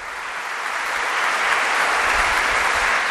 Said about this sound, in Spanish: Oiga, no crea que este aplauso es el de sábado gigante, ¿eh? No. Es un aplauso bien merecido, porque ellos acaban de terminar las penitenciales. Muchas horas muchas horas estuvieron en el sacramento de la confesión.